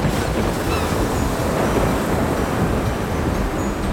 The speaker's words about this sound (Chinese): 我们看到了画面呢，出现了一个很大的海上哦，海上遇到了一个暴风雨哦，哇，又打雷的，又吹风的，又海浪很大的，水啪嗒啪嗒的敲在铁质的冰冷的货柜上哦